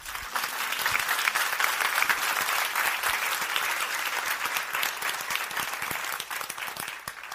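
Sustained audience applause, a dense, steady patter of many hands clapping at an even loudness throughout, with no voices standing out above it.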